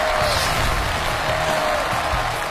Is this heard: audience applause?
yes